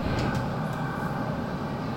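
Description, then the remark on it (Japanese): A steady, loud rumble of a subway train in a station, with a constant low-frequency roar and faint higher squeals or hisses near the start, no voices. “皆様そろそろ私地下鉄乗るよ。”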